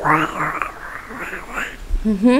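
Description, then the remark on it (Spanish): A voice mimics croaking intestinal rumbling with wobbling, gurgly vocal sounds for about two seconds, ending in a brief rising tone. “Y entonces también existe la diarrea, la gastritis, la úlcera péptica, náuseas y ruidos intestinales o flatulencias.”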